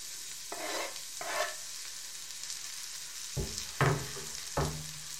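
A steak sizzles in a pan with a steady, bright hiss, broken by several louder crackling bursts as it shifts or is turned. No one speaks.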